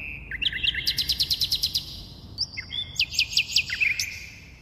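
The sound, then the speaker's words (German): A nightingale sings in two bursts of rapid, repeated high whistled notes and liquid trills, clear and fairly loud over a faint low background hum. “Wir hörten hier nämlich eine Nachtigall.”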